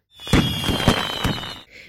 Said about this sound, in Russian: Новогодняя ночь, все легли спать, и тут соседи решили под утро еще бабахнуть. Фейерверки дурацкие.